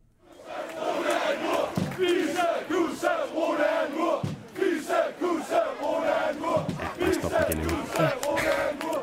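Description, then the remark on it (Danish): A large stadium crowd at a match chants in loud unison, voices rising and falling in a steady repeated rhythm as they call out a player's name, sustained throughout with a brief dip midway. “man kan godt høre, at der bliver sagt Rune”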